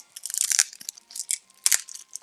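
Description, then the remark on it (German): A Kinder Riegel chocolate bar wrapper is torn open: a quick run of crisp, crackling plastic crinkles in uneven bursts, with two sharper rips standing out, and no talking over it. “Okay, jetzt machen wir erstmal Kinderregel auf.”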